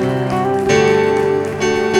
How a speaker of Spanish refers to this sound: Démele fuerte aplauso Señor, aleluya.